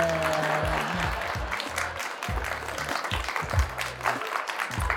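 A burst of recorded applause with a festive fanfare, steady clapping filling about five seconds, with brassy tones opening the sound before the clapping carries on alone.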